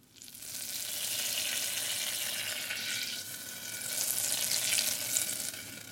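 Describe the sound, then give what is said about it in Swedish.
Butter sizzles steadily as it browns in a pan to the edge of burning, before going into crème fraîche; a dense crackling hiss that swells after a brief dip midway, with no talking over it. “Nu har vi då smält på gränsen till bränt smör.”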